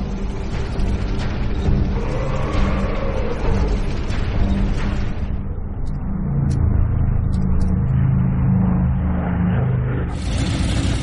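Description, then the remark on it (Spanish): The heavy engines of German tanks rumble continuously with a deep, loud low-end roar, rising and revving at moments as the large tracked vehicles churn along toward Stalingrad, with no voices. “Los carros alemanes ponen rumbo a Stalingrado.”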